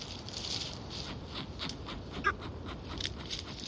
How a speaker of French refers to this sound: Mais dans le sous-bois, un oiseau mystérieux est lui bien réveillé. Ce qui farfouille dans les feuilles, c'est un kiwi d'Owen. Il a faim. Il est en pleine quête d'insectes et de vers à avaler. L'oiseau souffle, renifle.